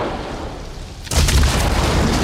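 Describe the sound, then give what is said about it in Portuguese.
A Jeep rolls off a cliff in a Spielberg film scene shot in a Los Angeles studio: after a second of low rumbling, a sudden heavy booming impact hits, followed by loud, sustained crunching and rumbling noise with no voices. “E quando finalmente o Jeep rola para o precipício, algo não faz sentido aqui.”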